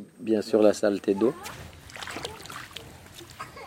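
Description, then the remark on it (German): Children shout and call out, followed by scattered splashing and sloshing of water as they play in a river, with voices continuing faintly in the background. “Kinder planschen im Wasser.”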